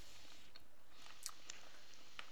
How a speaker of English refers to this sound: I'm chewing my last bite of food here in case everyone can't tell.